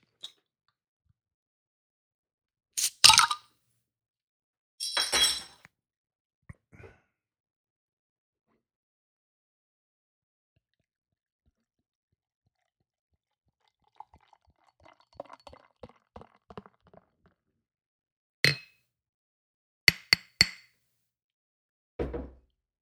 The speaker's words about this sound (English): So here we go. Let me, with my Sapporo bottle cap opener.